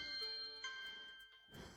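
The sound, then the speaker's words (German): A mobile phone rings with a bright electronic ringtone, sustained chiming tones with a new note partway through, clear, then fading into a rustling noise at the end. “Ja, das war mein Handy.”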